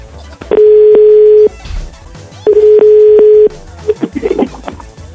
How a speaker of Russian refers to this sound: Самое сложное в этой программе – это набрать телефон. Надо за это зарплату поднимать мне.